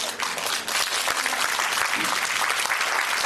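A crowd applauds steadily for a few seconds, a dense, hissy wash of many hands clapping at an even loudness with no voices standing out.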